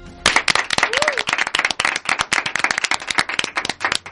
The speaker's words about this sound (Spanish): Un aplauso para estos compañeros que se lo han currado.